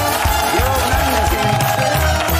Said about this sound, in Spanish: escuchar aplausos humanos. estoy fascinado.